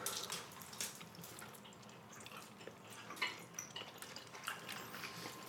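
Wet lip-smacking and chewing, with irregular moist clicks and pops over a quiet background as people eat sour candy. No one speaks.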